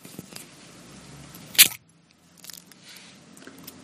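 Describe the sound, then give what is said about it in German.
A beer bottle, its foil wrapper first removed from the neck, is opened with one sharp, bright pop and a brief, soft burst of hiss as a light mist rises, followed by quiet low rustling and a few faint clicks. “Wird leicht genebelt und ja. ein sanftes Zischen.”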